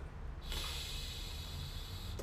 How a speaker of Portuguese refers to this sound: Não tampa assim que o dedo vai ficar sujo, tá? Tampa assim, assim é mais gostoso. Você vai tampar a narina direita, tá? E inspirar pela narina esquerda.